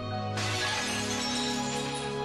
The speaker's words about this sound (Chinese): 于是故意打破了盘子。